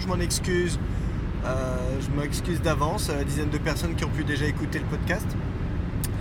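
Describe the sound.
Steady, deep road roar of a car cruising on a motorway in the rain on a Thursday evening, driving home from work, a constant low rumble that never lets up while someone talks over it throughout.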